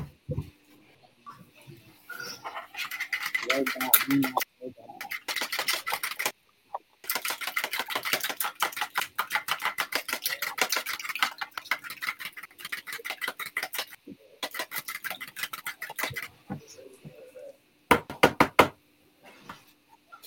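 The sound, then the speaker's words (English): Kitchen cooking sounds of homemade chicken nuggets being made: dense crackling and rapid popping, like food sizzling in hot oil, coming in long bursts separated by short silent pauses. “Making some homemade chicken nuggets.”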